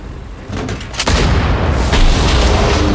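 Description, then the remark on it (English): A loud explosion bursts in after a low rumble, followed by a sustained, crackling roar that surges again partway through, with no voices: a German wheeled PaK 40 anti-tank gun, hidden in a haystack in a field, being blown into twisted metal. “He pointed its location out to Oller, and soon the German wheeled PaK 40 cannon became a mass of twisted metal.”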